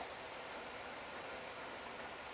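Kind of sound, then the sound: nature, rain falling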